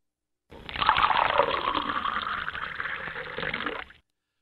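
Cola pours steadily for about three and a half seconds, a bright fizzy rush that starts abruptly and cuts off cleanly, with no voices.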